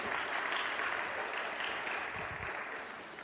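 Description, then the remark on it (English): An audience at a worship service breaks into steady applause, a dense crackle of many hands clapping together, holding evenly for a few seconds before easing slightly, as 22 new members are welcomed. “Yeah, we can clap already.”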